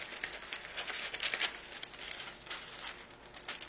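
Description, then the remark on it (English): Parchment paper being cut to fit a pizza pan and worked into it: soft, irregular crinkling and rustling with brief crackly bursts, steady and fairly quiet, with no voices. “So the hardest part is cutting the parchment paper to this pan here.”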